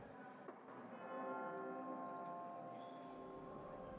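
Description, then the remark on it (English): Chimes ring out in an auditorium with sustained, overlapping metallic tones that shimmer and slowly decay, filling the space at moderate loudness with no talking. “The chimes ring.”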